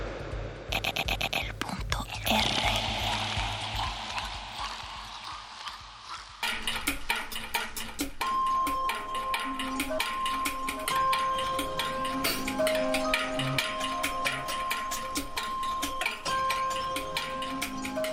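An industrial techno track: a harsh, grinding wash of noise gives way after a few seconds to a steady pounding beat with metallic clatter and a thin sustained tone above it.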